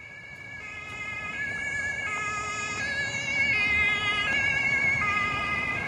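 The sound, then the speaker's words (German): Several wailing police sirens overlap above a steady rumble of traffic on a busy arterial road, their tones shifting and stepping in pitch and growing slightly louder as a convoy of police cars escorting a silver van with tinted windows drives past, heading to a high-security courthouse at the edge of a city. “Sie sitzt in einem silbernen Van mit verdunkelten Scheiben. Ihr Auto wird von mehreren Polizeiwagen begleitet.”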